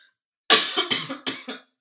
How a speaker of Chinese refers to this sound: 哎、你这样咳真的很严重呢。 没有，我现在是因为一直在讲话。 哦 OK， 我如果不讲话的话，不会就比较不会咳，连喉糖都不需要吃。可是现在因为一直讲话，然后喉咙非常的干。